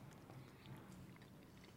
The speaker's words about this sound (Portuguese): Pode mastigar aí, viu? Uhum. Oh, oh, enquanto você mastiga, mandíbula, tem perguntas já aí? Tem algumas já. É, manda uma então, enquanto ele tá mastigando aí.